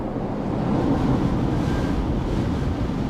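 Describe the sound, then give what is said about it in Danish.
Steady roar of sea waves surging in and pressing hard against sluice gates at a dike beneath gusty wind, a dense, continuous wash of low rumble and hiss with no pauses, fairly loud throughout. “Vandet trykker stadig hårdere og hårdere indad”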